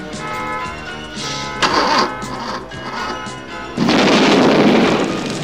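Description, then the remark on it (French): In a scene from the comedy film Rends-moi la clé, a sudden loud boom and roaring rush as a car bursts into flames, sustained to the end, following a few seconds of droning, tonal background with short swells. “Il y a ma voiture qui prend feu, là Allez, dégagez, dégagez Va bah, dégager, dégagez voyez pas que je brûle”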